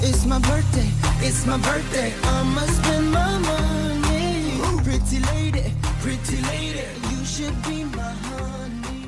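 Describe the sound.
An upbeat pop song with a Bollywood flavor, a male voice singing melodic lines over a heavy, pulsing bass beat and bright layered instruments, loud and continuous throughout.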